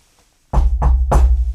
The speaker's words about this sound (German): Wir haben jetzt hier, Gott sei Dank, ich muss da gerade mal auf Holz klopfen,